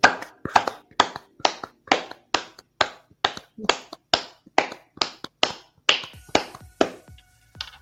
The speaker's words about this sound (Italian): Ma arrivati a questo punto direi che c'è da fare anche un'altra cosa, visto che sono l'una di notte, glielo vogliamo fare un bel applauso ai nostri spettatori.